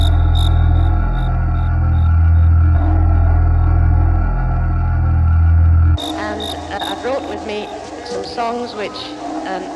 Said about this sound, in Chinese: 之后遒劲有力的真鼓节拍，可爱的蟋蟀叫声，忧郁的钢琴声糅合在一起，简练而又生动。